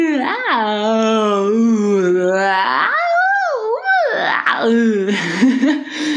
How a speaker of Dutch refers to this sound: En dan, um, waar ik ook heel vaak mee begin, is zo geeuwen, gekke bekken trekken en daar de stem in laten meedoen. En eh, dan, dan mm. kan het zo klinken.